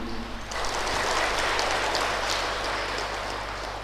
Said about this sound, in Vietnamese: hãy dâng cao tràng vỗ tay để à, tán dương